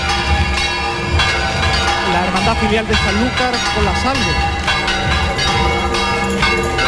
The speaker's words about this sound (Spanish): suenan de nuevo las campanas porque se despide